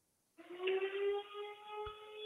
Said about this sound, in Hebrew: חברים, לא תאמינו, אבל מתחילה כאן אזעקה. לא, לא, בסדר גמור, אז אתה לא יכול לגשת עם הפלאפון לממ"ד. קיבלנו, קיבלנו בשידור חי את המציאות.